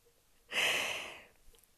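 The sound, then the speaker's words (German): A pet cat snores once in the background, a single soft, breathy rasp lasting under a second, on its own against a quiet background. “Falls sich das komisch anhört im Hintergrund, meine Katze schnarcht.”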